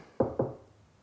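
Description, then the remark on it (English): Two quick knocks of knuckles on wood, fairly loud, each with a short dull thud that fades fast, followed by quiet. “Knock on wood.”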